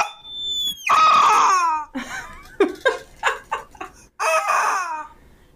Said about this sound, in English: I got this rubber chicken. Oh, I was like, you did bring, but you did get a bird. Wearing a grass skirt, and it's a rubber chicken. He's got sunglasses on and this is the sound that he makes.